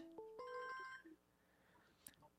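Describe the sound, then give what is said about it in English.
A bright electronic phone ringtone for an incoming call plays a short melodic phrase of several clear tones, fairly loud, then cuts off, leaving quiet room noise and a brief click. “Hold on, we're I'm getting a phone call.”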